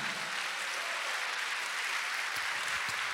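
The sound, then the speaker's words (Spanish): An audience claps steadily in applause for Christ, many hands forming a dense, continuous crackle of applause that holds an even loudness throughout, with a few sharper individual claps near the end and no voices. “¿Cuánto le dan un aplauso a Cristo, amado hermano?”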